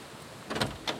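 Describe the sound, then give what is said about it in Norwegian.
A door is unlatched and pushed open at Ruthwell: a short scraping clatter followed by a second sharp clunk, with no bell tone audible and no voices. “Her er døra. Vi går bort og ringer på her, vi.”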